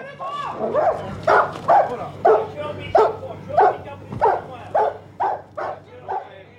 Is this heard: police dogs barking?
yes